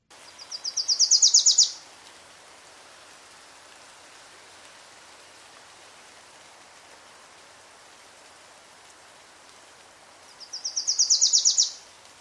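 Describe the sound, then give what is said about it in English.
A Wilson's warbler sings two short bursts of rapid, repeated high chattering notes that grow louder and then stop abruptly, separated by a long pause over a steady hiss of background noise. “So here's a Wilson's warbler singing.”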